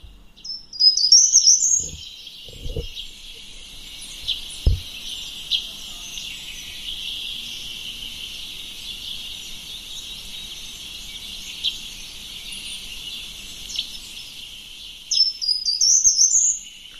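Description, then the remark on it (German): A short-toed treecreeper sings a brief, high phrase, then falls silent for a long pause before repeating it, over a steady hiss of insects or background noise. “DER GARTENBAUMLÄUFER”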